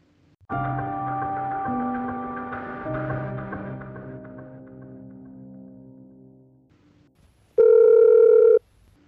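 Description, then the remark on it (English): A telephone rings at 11 p.m.: a long, resonant electronic chime that slowly fades, then after a brief pause a single loud, steady buzzing ring tone, with no voices. “Sorry to phone you at 11 p.m.”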